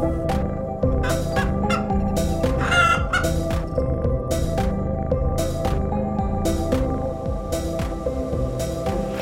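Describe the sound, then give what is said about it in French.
A large flock of about 250 hens on a farm clucks and squawks continuously, with sharp repeated calls rising over a dense, busy barnyard din. No one speaks. “Trois adorables chats, des moutons qui se baladent, et surtout, il y a 250 poules.”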